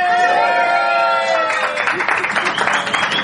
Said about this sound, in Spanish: Estamos en el episodio en vivo. Saluden chicos, un aplauso por favor.